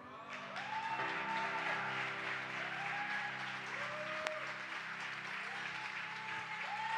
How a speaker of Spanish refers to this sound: Así que, ¿qué te parece si recibimos con un fuerte aplauso la vida de la pastora Perla Durán?